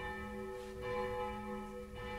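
Church bells ring continuously, their sustained overlapping tones forming a dense, resonant wash that fills the space, steady and moderately loud with no voices.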